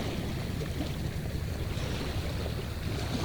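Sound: waves on a seashore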